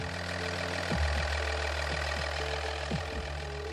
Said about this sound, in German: Ältere Dieselautos erkennt man an einem typischen Motorgeräusch, dem sogenannten Nageln.